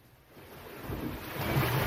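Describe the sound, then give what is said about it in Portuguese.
Sea waves around the island of Porto Santo wash in with a broad, rushing roar that swells louder over a couple of seconds, with a touch of wind in the background and no voices. “O mar é presença assídua no dia a dia dos porto-santenses e dos turistas que na ilha encontram lugar para relaxar, descansar ou explorar.”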